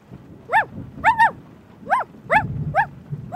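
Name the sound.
puppy barking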